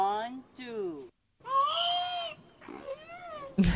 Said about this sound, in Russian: Это касатка, друзья. Получив, да, получив э, звуковую запись касатки, да, условно говоря, мы пытаемся экстраполировать